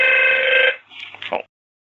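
A loud, steady electronic telephone ring sounds for under a second, then cuts off, followed by a few faint, brief shuffling noises before silence.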